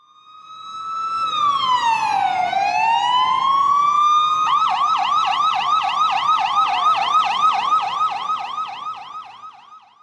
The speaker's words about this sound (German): Ja, das war eine Polizeisirene in Jerusalem. Ähm, als ich jetzt in den letzten Tagen dort war und wenn man im Hotel saß und das Fenster offen hatte und man hörte das, dann fragte man sich eben immer, ähm, was ist jetzt los?